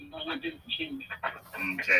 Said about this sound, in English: your phone is digitizing on you badly there. I'll give you one last try to try that.